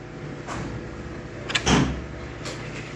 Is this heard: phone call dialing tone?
no